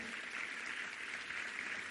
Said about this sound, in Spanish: Que alguien diga un amén más fuerte y le dé un aplauso al Señor.